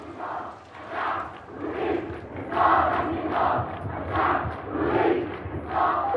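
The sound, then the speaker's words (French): A large crowd of Palestinian protesters in the streets of Ramallah chants a new slogan in unison after the announcement of Nizar's death, loud rhythmic bursts of voices rising and falling in a steady repeating cadence, with a constant low rumble of the crowd underneath. “Après l'annonce de son décès, un slogan inédit va être scandé dans les rues de Ramallah.”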